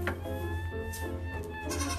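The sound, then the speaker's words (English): A billy goat, held by its horns and being moved out of the way, bleats in one long, wavering, nasal cry that fills the whole moment, loud and strained, over a steady low rumble in the background. “I've got the Billy goes by the horn. His horns are like handlebars of your bicycle.”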